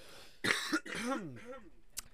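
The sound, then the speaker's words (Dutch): A harsh cough bursts out, followed by a few rough, throaty vocal sounds and a brief sharp click near the end. “Ik hoest de laatste weken zoveel, maar het is, het is.”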